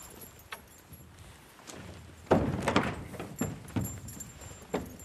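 keys jangling

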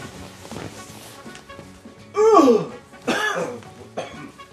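coughing

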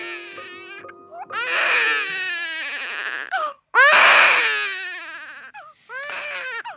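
newborn baby crying

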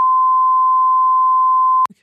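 censor bleep tone

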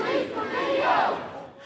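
street protest crowd shouting

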